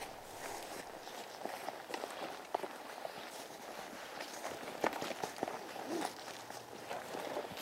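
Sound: footsteps walking outdoors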